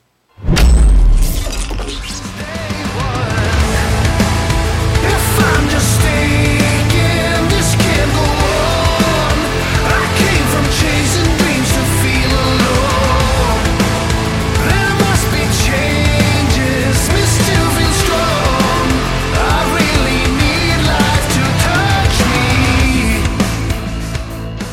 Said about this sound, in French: Mais dès le deuxième titre, le groupe développe également un métal relativement moderne, à caractère plus commercial, dont on écoute un extrait.